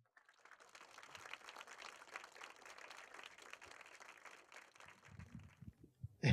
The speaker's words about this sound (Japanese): 皆様、盛大な拍手でお迎えください。